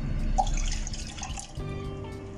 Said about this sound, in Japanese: ここにですね、えーと、コップ半分のですね牛乳を